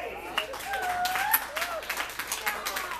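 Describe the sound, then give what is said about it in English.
A comedy club audience applauds in a steady wash of clapping, with some cheering and whooping voices rising over the dense patter of hands. “First and foremost, I want to thank y'all for coming tonight, clapping up for yourselves.”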